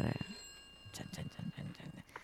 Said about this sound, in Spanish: Atiende el teléfono.